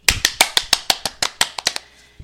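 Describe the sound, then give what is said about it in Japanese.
A single person claps their hands about a dozen times in a quick, steady rhythm, each clap sharp and loud, with no talking in between, clapping to celebrate that their show has kept going, at its last broadcast of 2020. “いや、私の中でね、あの、拍手する意味としては、うん、いや、なんとなく始めたんだけど、うん、まあ、こ、まあ続いたらここまでみたいな。”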